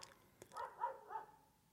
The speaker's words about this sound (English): um, I'm getting distracted because the dogs in this neighborhood have just they've gone wild and they've all started attacking each other. It sounds like.